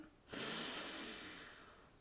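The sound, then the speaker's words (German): A long, deep breath drawn in through the nose during a guided breathing exercise, a steady airy hiss lasting almost two seconds, clear, slowly easing off toward the end with no talking. “Durch die Nase ein und laut durch den Mund wieder aus.”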